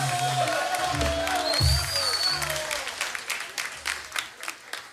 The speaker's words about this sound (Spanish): Ahí se aplaude.